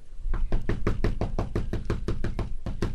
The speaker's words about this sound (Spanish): ya tocaron la puerta.